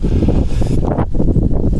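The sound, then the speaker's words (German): Loud, rumbling wind buffets the microphone, a dense low roar that surges and dips in gusts throughout, with no voices over it. “Und es ist, ist gerade windig geworden, ihr hört's.”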